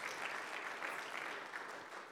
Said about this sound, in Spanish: ¿Cuántos dicen amén? Dale un aplauso a la gloria de Jesús.